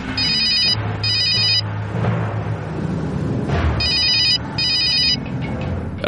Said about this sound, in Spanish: La protagonista de esta historia marcó el número de teléfono de casa de sus padres, ubicada en Buen Cuando el teléfono ya había sonado cuatro veces,